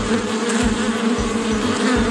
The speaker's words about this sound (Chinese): 蜜蜂们忙碌地在蜂巢中飞舞工作。阿吉听到了蜜蜂们的嗡嗡声